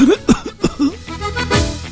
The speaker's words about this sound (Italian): fammi vedere un po' il petto, dai. Fai un po', tosse un po', tosse un po'.